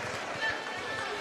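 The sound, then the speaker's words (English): A steady wash of group voices shouting encouragement: the Nolensville Lady Lions bench cheering their teammates during a basketball game against Columbia, loud and continuous with no single voice standing out. “90% of the noise you're hearing through the microphone is, is the Lady Lions bench right now.”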